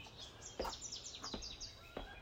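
Morning birdsong in Africa at half past six, around sunrise, with several birds chirping and trilling at once, quick high tweets and descending whistles overlapping, a few sharper calls standing out against a soft, continuous background chorus.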